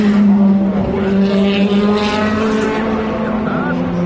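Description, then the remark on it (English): Race car engines roar loudly, a steady high-revving drone with shifting pitch lasting the full few seconds as the cars, lights on, approach from the right by the Dunlop Bridge and go past. “the cars you'll hear in stereo approaching from the right with their lights on”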